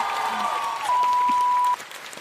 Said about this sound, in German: Hey, von mir hat das einen riesen Applaus verdient, dass du das, weißt du, die Entscheidung zu treffen.